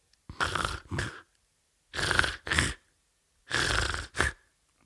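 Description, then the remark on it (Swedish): A voice imitates snoring: three evenly spaced cycles, each a rough, raspy inhale followed by a shorter snort-like exhale. It is fairly loud, with no talking. “det berodde mest på att han hade somnat och kommit eh, åt sin snarknerv som gjorde att huvudet nickades upp och ner samtidigt som han gjorde det här lätet.”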